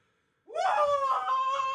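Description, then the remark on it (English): After a brief silence, a person suddenly lets out a loud, sustained yell that rises sharply and holds, raw, until the end. “Wait, stop. Stop yelling.”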